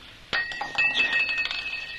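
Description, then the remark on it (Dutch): A drinking glass of water is dropped and hits the floor with a sudden crash and shatters, followed by more than a second of bright tinkling and ringing shards, with no talking. “Jij hebt het glas kapot gemaakt.”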